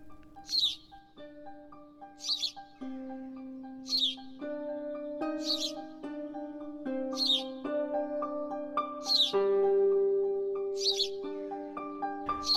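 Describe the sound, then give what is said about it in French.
A small sparrow with a broken wing, fallen from its nest, chirps faintly as if in distress, in short high bursts about every second and a half, eight or so calls, over soft sustained musical tones. “Il arriva qu'un jour, alors qu'il était en train de récolter des branchages, il entendit au loin des pépillements tout faibles, comme un cri de détresse.”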